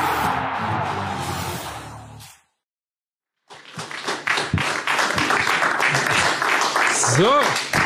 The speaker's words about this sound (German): Der Beitrag ist zu Ende, aber der Applaus galt natürlich nicht uns oder der Sendung, sondern natürlich der sehr erfolgreichen.